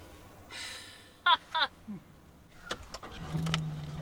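A truck rolls slowly over a rough dirt road through the hills of a reservation, heading toward a huge bull, its low engine rumble steady beneath scattered crunches and rattles, with a couple of short breathy bursts early on.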